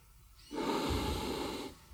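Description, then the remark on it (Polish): A single forceful breath-of-fire exhale pushed out through the nose with the mouth closed, a loud, hissing blast lasting about a second before cutting off, with no talking. “to polega na takim chuchaniu, ale jednocześnie mając zamknięte usta.”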